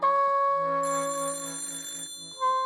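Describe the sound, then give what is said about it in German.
A telephone in a hallway rings in the morning with a steady, bright electronic tone that shifts in pitch partway through, loud, with no voices present. “Er wartete, ob das Klingeln aufhören würde.”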